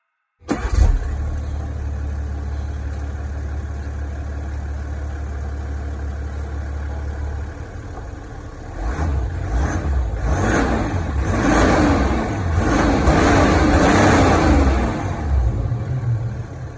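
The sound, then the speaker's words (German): A six-cylinder turbo diesel car engine starts and idles steadily, then is revved repeatedly in rising surges for several seconds, loud with no talking. “Und man hört auch, es ist kein Vierzylinder, sondern es klingt nach mehr. Nach man, sechs Zylinder. Man hört auch so ein bisschen Turbo.”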